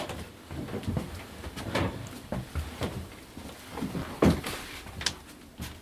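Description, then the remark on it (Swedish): A door is pulled open with a series of wooden clunks, rattles and a short creak, one sharper knock standing out near the end, with no talking. “Får jag öppna upp den här dörren som är här då?”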